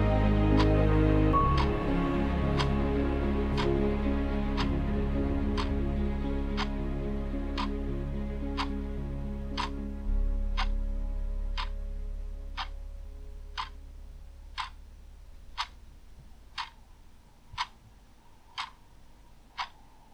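A clock ticks steadily at about one tick per second, sharp and crisp, over a low sustained hum that gradually fades, leaving the ticks more prominent toward the end.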